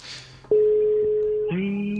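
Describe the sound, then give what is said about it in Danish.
A steady electronic phone tone sounds as an outgoing call to a journalist rings through, holding one pitch for about a second before shifting to a second, lower tone, with faint talk-like murmur at the start. “Vi ringer til ham for at høre,”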